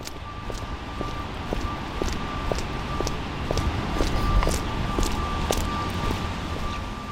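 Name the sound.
rain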